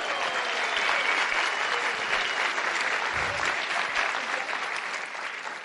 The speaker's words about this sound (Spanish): Y primero de mayo allá uno arrunchado y está cumpliendo años mi mami. Denme un aplauso para mi mamá.